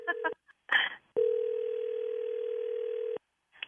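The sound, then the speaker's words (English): A telephone dial tone hums steadily for about two seconds as a conference call is placed, preceded by a couple of short tone blips and a clunky handset rattle. It is clear, with no talking. “Let's call her. I'm going to conference her in right now.”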